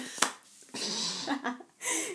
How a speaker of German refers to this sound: ja, und ich klicke auch die ganze Zeit hier mit so einem Kuli rum.